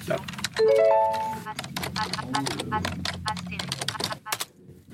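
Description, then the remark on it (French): Rapid, irregular keystrokes clatter on a standard AZERTY keyboard plugged into a laptop at a workstation that also has a braille display, fairly loud, with a quick rising series of electronic tones early on and a low, fast-talking voice murmuring underneath. “Cet ordinateur, euh, j'ai branché un clavier AZERTY, euh, clavier standard, et j'ai aussi une plage braille.”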